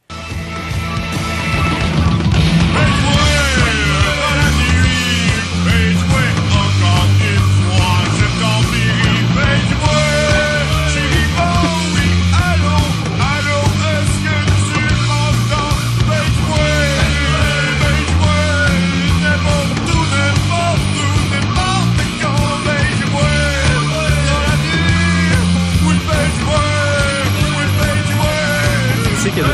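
A French-language rock cover song plays loud and continuous throughout, with pounding drums, dense electric guitars and sung vocals filling the whole mix from start to finish.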